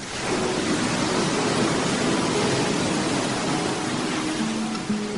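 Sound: sea waves sound effect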